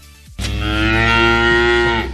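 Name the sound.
cow mooing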